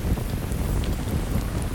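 Steady rain falls with gusting wind roaring low and constant, a dense wash of noise with faint droplet patter on top; no voices.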